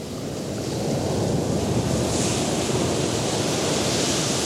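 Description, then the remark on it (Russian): Steady roar of ocean surf with waves washing in, a broad continuous rush that swells slightly midway, with no voices. “Я побежал к океану, прощай,”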